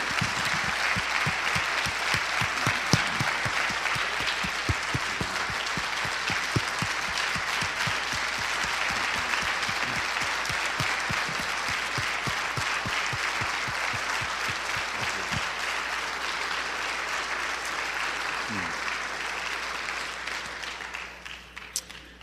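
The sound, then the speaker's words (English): A church audience at a morning service applauds to honor the first responders in the church, a steady, dense wash of clapping that holds for about twenty seconds, then tapers off quickly at the end. No one speaks over it. “And so I want to honor those first responders in our church this morning, can we, with a round of applause that they, they protect us, they serve us.”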